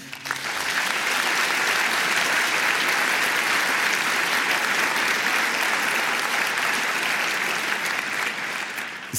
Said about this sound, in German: kommen noch ein paar, also teilt euch den Applaus ein.